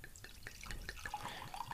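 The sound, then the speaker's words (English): Wine pours into a glass, a quiet trickle with small splashing bursts and a faint ringing tone that rises slightly as the glass fills. No voices. “one of the over often overlooked ways to determine a wine's quality is the sound as you pour it in the glass.”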